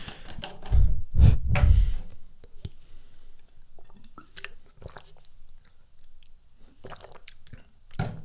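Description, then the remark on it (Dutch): Someone drinks water right at the microphone: a few heavy, wet gulps near the start, then quieter swallowing clicks and small mouth sounds, with no talking. “Laten we water drinken.”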